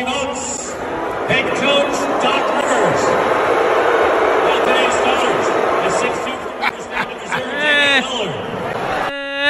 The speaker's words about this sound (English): That's a weak boo. That's, that's a that's a weak boo. That's a weak boo. Like I need I need boos raining down. That was almost like a golf clap boo.